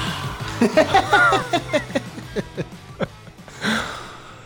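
soda can being opened

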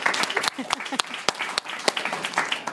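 audience applause and cheering

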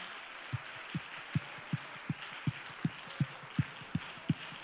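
audience hand clapping

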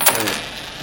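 coins dropping

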